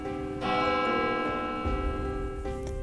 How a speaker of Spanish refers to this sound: Al parecer, solo el sonido de la campana de una iglesia los salvaría.